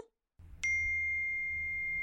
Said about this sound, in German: Hey, wer schreibt denn jetzt schon wieder? Ah nee, das ist eine Eilmeldung.